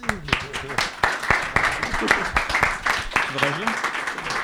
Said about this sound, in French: Et je voulais qu'on l'applaudisse pour ça. Merci.